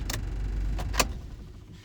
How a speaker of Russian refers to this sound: Это я машинку заглушил, слышали, да?